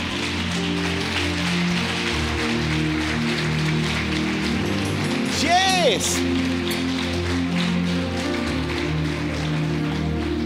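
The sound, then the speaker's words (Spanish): An audience, asked to stand, applauds loudly and steadily, a dense wash of clapping that fills the whole stretch, while a voice speaks over it and a brief rising vocal cry cuts through midway. “¿Quieres ponerte de pie y, dar un aplauso fuerte, fuerte, fuerte, fuerte?”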